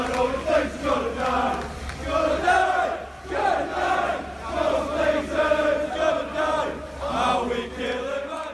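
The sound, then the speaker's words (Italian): A large crowd of Manchester United fans at Old Trafford chanting in protest against the club's American owners, the Glazers, and the Super League before the match with Liverpool; loud and sustained, a rhythmic, repeating sung phrase rising and falling every second or two over a steady low rumble. “Una protesta senza precedenti, quella inscenata dai tifosi del Manchester United prima della super sfida con il Liverpool, Old Trafford invaso, cori contro i proprietari dello United, degli americani Glazer e contro l'idea della Superlega”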